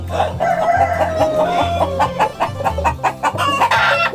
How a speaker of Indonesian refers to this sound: Wow, suara ayamnya ramai sekali. Ini mereka apa belum dikasih makan ya? Atau jangan-jangan uh, sedang berkelahi?